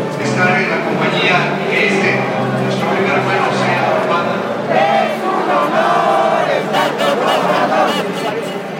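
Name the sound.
crowd chanting slogans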